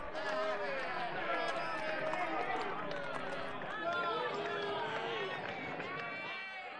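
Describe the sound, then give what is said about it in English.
A crowd of many people in London in 1599 chatter over one another in a dense, steady murmur while footsteps shuffle along underneath as they head to the Globe theatre, the overall loudness staying even throughout. “Look, this crowd seems to be heading to the theatre now, so let's go with them.”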